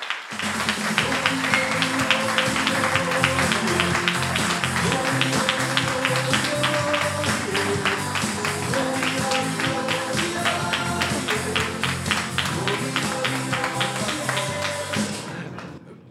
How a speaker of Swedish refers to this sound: Eh, ja, för det första är det ju våran, eller våran, Davos gamla eh, omklädningsrumslåt efter eh, vinstmatcher, äh, matcher vi har vunnit. Deras torparock.